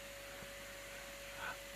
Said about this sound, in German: Genau, hört man den Staubsauger,